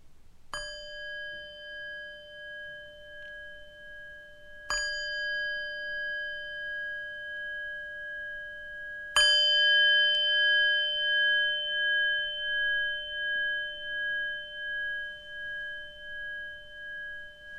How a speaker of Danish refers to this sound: Velkommen til meditation. Sid behageligt og følg lyden af klokken, indtil du ikke kan høre den længere.